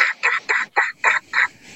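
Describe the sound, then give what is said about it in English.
A hen turkey's yelping, imitated with a call: about six raspy, evenly spaced notes in a steady rhythm, fairly loud, with no talking. “that reed hen starts going,”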